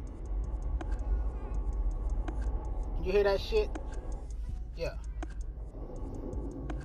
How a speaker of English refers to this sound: That is the back brakes.